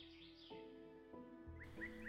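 Faint, distant birds chirp in short high bursts toward the end, over a soft, sustained tonal hum with occasional low swells.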